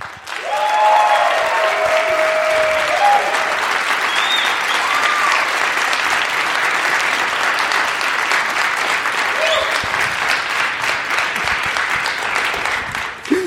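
A live audience applauds steadily for over ten seconds for a submitted question, a dense, even wash of clapping with a few whistles and cheers rising briefly above it.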